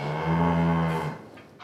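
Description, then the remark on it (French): A single long cow moo, loud, with a steady low drawn-out tone lasting about a second before fading, heard alone with no talking. “Tu veux une vache toute belle, tu veux une vache toute chic, achète chic Le shampoing pour vache.”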